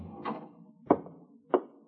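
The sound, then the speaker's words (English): The knob of an unlocked apartment suite door turns with a few quiet clicks and clunks, three distinct knocks of metal and wood spaced about half a second apart as the door is unlatched and eased open, no voices. “And just for kicks, you try the knob, and very conveniently, the door's not locked.”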